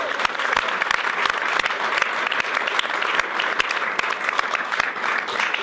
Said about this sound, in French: On peut vous applaudir.